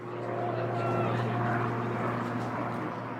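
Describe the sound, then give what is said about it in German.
Steady, droning propeller engines of historic biplanes flying low over a recreation area southeast of downtown Katowice, Poland, in mid-June, hum continuously at moderate loudness, a low tonal buzz that holds evenly throughout without fading in or out. “Immer wieder ziehen Doppeldecker im Tiefflug über ein Naherholungsgebiet südöstlich der Innenstadt.”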